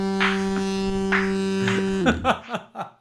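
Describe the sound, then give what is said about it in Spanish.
A voice imitates poop falling right into the toilet bowl: a steady buzzing hum for about two seconds, then a quick run of four or five short, descending plopping vocal sounds. “eh la, mierda cae justo en el bate.”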